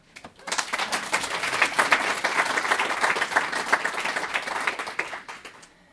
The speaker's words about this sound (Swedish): Det låter jättebra, men du kan få en applåd.